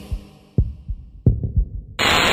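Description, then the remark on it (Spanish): A deep, thumping heartbeat sound effect in a radio jingle pulses in uneven double beats, some with a sharp click on top, then cuts abruptly into a loud, steady burst of hissing static. “Sentí la radio. Latidos de radio.”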